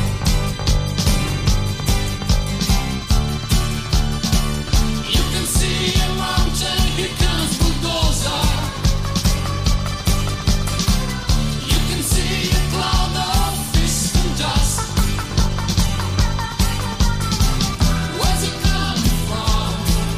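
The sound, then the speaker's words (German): An upbeat pop song plays from a recording, loud and steady, with a driving regular beat, bass, and layered melodic instruments throughout, and no one talking over it. “toller Song, den ich immer wieder höre und immer wieder höre”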